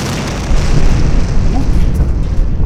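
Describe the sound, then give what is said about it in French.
A loud explosion sound effect, played to depict a pirate base blowing up, erupts after a brief quieter moment and keeps roaring as a dense, rumbling blast with heavy low-end boom, sustained to the very end without letting up. “Eh, on va pas mettre en avant l'explosion d'une base pirate sans un bon fond sonore.”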